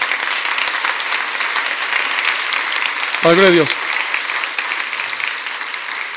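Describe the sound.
Steady applause from an audience for a pastor fills the whole stretch, a dense crackle of many clapping hands, while a single voice briefly calls out over it midway.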